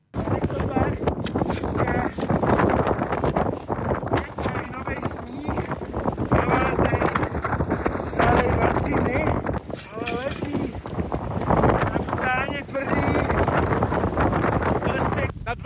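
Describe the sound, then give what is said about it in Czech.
Very strong wind roars and buffets steadily across the whole recording in the Pražský kotel mountain cirque, carrying newly fallen snow during a snow measurement, loud, with people talking through the gusts. “Pražským kotlem fouká velmi silný vítr, který sebou nese nově napadaný sníh”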